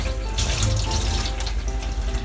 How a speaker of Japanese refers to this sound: 僕はついでに今違う皿をちょっと洗ってるんですけど、